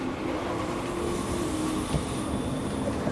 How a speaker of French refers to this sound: me voilà dans un train pour saint etienne